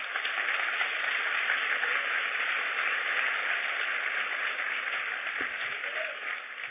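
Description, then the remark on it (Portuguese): A church audience applauds for God at a preacher's call, a steady, dense wash of many hands clapping at once that holds evenly for several seconds before tapering slightly at the end. No one speaks over it. “Se é para Deus, aplaude.”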